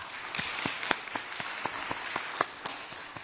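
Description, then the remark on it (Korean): A church audience applauds together to give glory to God, a dense wash of many hands clapping steadily, with sharper individual claps popping out at a fairly regular rhythm. No one speaks over it. “새 하루를 열어주시고 또 새 한 주간을 열어주신 우리 하나님께 영광의 박수를 올려드리겠습니다.”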